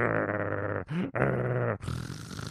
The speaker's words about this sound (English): It does sound like an animal growl. It does sound like a bear. It does sound like something like, uh, you know, that's angry. It's like you know, it's like a, it's like a nasty cat hissing, or it's like a dog growling.